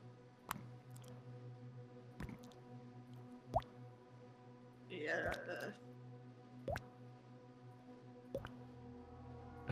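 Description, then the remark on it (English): Liquid drips onto the floor in slow, sharp drops, about one every couple of seconds, over a steady low humming drone, with a brief wet squelching sound midway. “Something is just dripping on the floor.”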